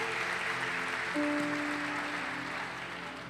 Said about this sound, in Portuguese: Aplauda ao Senhor que é digno. Glória a Deus. Glória a Deus.